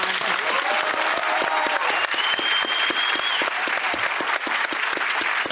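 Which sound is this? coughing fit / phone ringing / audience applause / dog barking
audience applause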